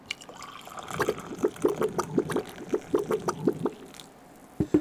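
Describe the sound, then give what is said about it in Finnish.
Coffee is poured into a mug in a steady run of rhythmic gurgling glugs, about a dozen quick pulses, ending with a brief pause and a sharp knock at the end. “E, ei, ei kaada sinne päälle vaan.”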